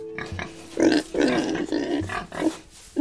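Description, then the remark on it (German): Several pigs grunt and snort in an irregular series of loud, throaty bursts, with overlapping squeals and snuffles and a busy barn-like background, on the organic farm Gut Marienborn in Büdingen in the Wetterau. “So klingt Bauernhof.”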